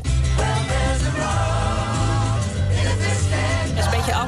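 A loud, full-band rock song plays steadily, with driving bass, guitars and bright cymbals filling the mix; no one speaks over it.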